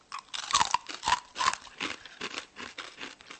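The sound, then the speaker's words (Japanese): Crunchy chewing on a green brown-rice snack containing komatsuna greens and nori: a steady run of crisp, crackling bites in an uneven rhythm, fairly loud and alone with no talking. “とりあえずじゃあちょっといただいてみるうねはいいただきますあなんかね緑色で、うん、なんかいろいろなんか入ってるねこれ玄米入ってま玄米玄米が入ってるのか、うん、これここにこう小松菜がおおいただきます”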